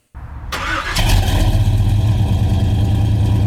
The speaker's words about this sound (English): But since we can't, can we hear the Suburban again?